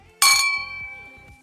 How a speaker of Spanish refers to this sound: Pero antes de comenzar y siguiendo nuestra nueva tradición, pues no vamos a tener minuto de silencio, sino que vamos a tener un brindis.